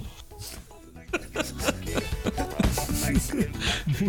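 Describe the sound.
Someone imitates loud snoring, a run of rough, rattling snorts and throaty grunts repeating in an uneven rhythm for about four seconds, mimicking snoring heard from the middle of the street.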